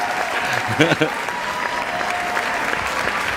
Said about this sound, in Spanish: Bravo, bravo a esos nadales, bravo. Otro aplauso para esos nadales